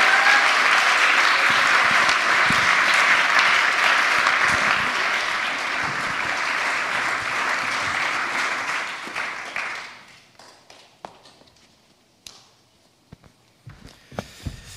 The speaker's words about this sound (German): Herzlichen Dank, Regine. Großen Applaus für Regine von Micha.